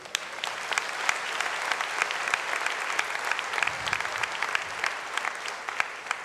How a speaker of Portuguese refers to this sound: Aplauda as chances de Deus na sua vida.